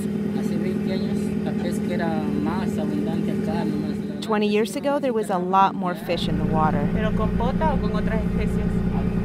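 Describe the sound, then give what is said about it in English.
A steady, loud low-pitched engine drone fills the cabin of a squid-fishing boat, running continuously beneath a man's speech, with the rumble shifting slightly partway through. “We're inside the ship's cabin, that's why it's so noisy.”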